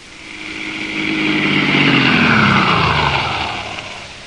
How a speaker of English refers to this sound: I drove home, parked my car in my garage, turned off the lights, stepped out,